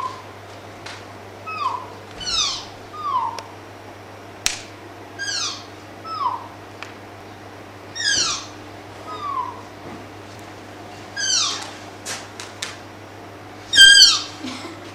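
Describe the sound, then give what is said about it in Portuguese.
A tapir gives a long series of thin, high whistling calls, each a quick downward-sliding squeal, repeating about every second over a faint steady hum, with one louder call near the end. “olha aí, bicho, é um assoviozinho, cara. Parece um bicho pequeno, parece até Exato. um passarinho, né?”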